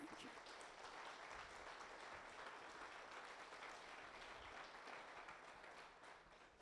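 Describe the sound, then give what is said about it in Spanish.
A crowd applauds the Lord steadily, a dense, even wash of many hands clapping at once that holds at a constant loudness and eases off slightly at the very end. “Era un aplauso al Señor, no manches.”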